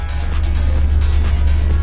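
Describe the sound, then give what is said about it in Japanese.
A car's deep engine rumble fills the multi-storey parking garage of Lazawalk in Yamanashi Prefecture, Japan, loud, holding steady through the short moment with a hollow, echoing hum and no voices. “本日も山梨県海市にありますラザウォークの立体駐車場よりお届けしております。”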